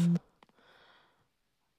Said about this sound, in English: Go away, Facebook. I don't care about your notifications.